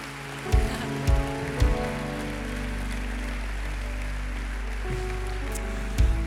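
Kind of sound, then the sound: crowd, audience applause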